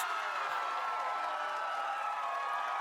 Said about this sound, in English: thank you very much for the applause.